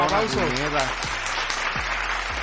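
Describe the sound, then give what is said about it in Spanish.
A burst of dense, steady applause for someone's fresh haircut fills the whole moment, crackling with rapid overlapping claps, while voices call out loudly over the top of it. “Aplauso, aplauso.”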